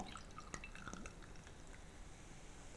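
Beer from a freshly opened bottle poured into a glass, a steady, soft gurgling stream with a few bright splashes early on, fizzing quietly throughout and leaving a clear beer with a foam head, with no voices.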